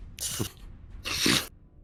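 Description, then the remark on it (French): Dice rattle and roll in two short clattering bursts during a tabletop role-playing game, the second longer and louder, with a brief quiet gap between them and no one speaking. “bon allez les dés, soyez avec moi là pour...”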